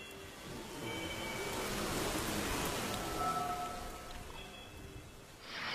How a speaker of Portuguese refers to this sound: não, não devemos nos preocupar, a chuva está limpando os resíduos e vai ficar tudo bem.